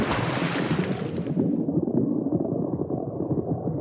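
A steady wash of ocean waves, a broad rushing roar that starts bright and hissy, then settles into a lower, churning rumble with no voices present.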